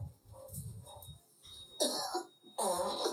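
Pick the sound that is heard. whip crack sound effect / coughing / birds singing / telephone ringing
coughing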